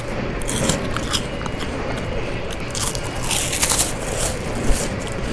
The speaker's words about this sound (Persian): هنوز خیلی مطالعه عمیق نشده بود که متوجه میشه آقایی که کنار ایشون نشسته بودن بسته بیسکویت رو برمیدارن و خیلی پر سر و صدا مشغول به خوردن بیسکویت های ایشون میشه